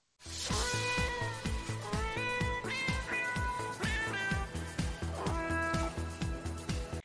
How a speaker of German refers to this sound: Dieser Song ist so legendär ist das mit diesen Katzen? Ja, dieses Miau, Miau, Miau, Miau. Das, okay. Ich kann mir das zehn Stunden lang anhören.